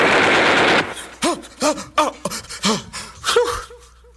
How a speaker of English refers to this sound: Oh no. I think I hear gunshots.